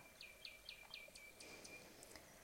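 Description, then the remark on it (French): A yellowhammer sings a quick series of thin, repeated chirping notes at an even pace, the first note repeated several times and the last one a little lower and slower, fairly faint, over a steady high insect-like hum. “le bruyant jaune demande son Little Bit of Bread and No Cheese”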